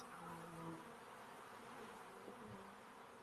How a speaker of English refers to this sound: The bees are buzzing.